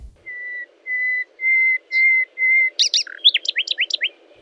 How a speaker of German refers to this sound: Nachdem Nikolaus Nachtigall seinen wunderbar melodischen Gesang beendet hatte, setzten Felix die Feldlerche Robert die Rauchschwalbe und Siegfried die Singdrossel ein.